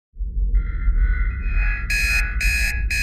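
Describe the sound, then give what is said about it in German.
An alarm clock starts with a steady electronic tone, then breaks into loud, harsh buzzing pulses with short gaps between them, over a low rumbling background hum. “öffnet die Augen in derselben Sekunde, in der sein Wecker zu klingeln beginnt.”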